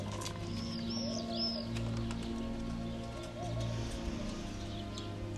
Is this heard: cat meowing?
no